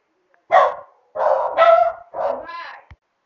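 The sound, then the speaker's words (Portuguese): A dog at home barks several times in quick, uneven bursts, loud, with a few drawn-out, whiny yelps among the sharper barks, then a short click at the end. “Bom, gente, desculpa aí o som do cachorro aí, porque eu, eu faço meu podcast direto no meu smartphone e em casa, né?”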